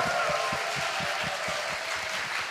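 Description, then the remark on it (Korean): An audience applauds steadily for the full length after a talk by CEO Lee Ji-yong, a dense, crackling wash of many hands clapping at once, with a regular low thumping beat pulsing underneath. “너무 멋지게 또 알려주신 우리 이지용 대표께 여러분 큰 박수 부탁드립니다.”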